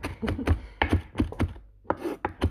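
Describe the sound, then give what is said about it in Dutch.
A knife chops celery on a cutting board during cooking, a steady series of sharp taps about three per second, with a brief pause midway before the chopping resumes. “Terwijl ik deze podcast opneem, ben ik aan het koken je hoort me nu selen hakken.”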